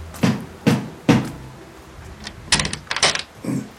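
Three heavy, evenly spaced knocks made with a heavy brass handle strike the door of an old manor house, loud, followed a moment later by a burst of rattling, clattering sounds like the door being unlatched.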